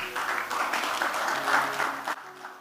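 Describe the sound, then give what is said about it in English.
A crowd claps steadily for a couple of seconds, a dense patter of many hands that fades out near the end, with a faint low hum underneath. “I thought you were clapping.”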